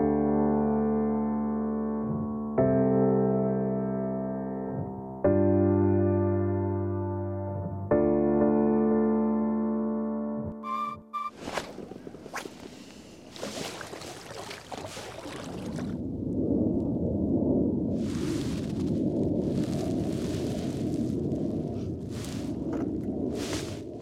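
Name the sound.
airplane flying overhead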